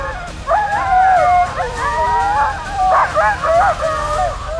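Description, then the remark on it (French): A pack of sled dogs barks and yelps together, growing louder and louder as the first barking dogs set off the others, with overlapping high, wavering cries and howl-like yowls filling the air in a loud, continuous, excited chorus with no talking. “Et les premiers chiens qui aboient, ça agace les autres, alors ils aboient aussi, et ils aboient de plus en plus fort.”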